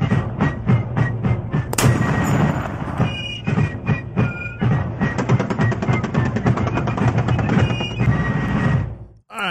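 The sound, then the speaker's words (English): Loud rapid gunfire crackles in dense, fast bursts, shot after shot with brief pauses between volleys, continuing for about nine seconds before cutting off abruptly. “All right, um, yeah, let's do the uh, let's hear some guns.”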